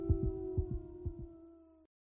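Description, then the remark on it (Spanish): A heartbeat sound effect thumps in three quick lub-dub pairs, deep and muffled, over a steady droning hum that cuts off abruptly just before the end. “Je n'entends plus que les battements de mon cœur et les loups.”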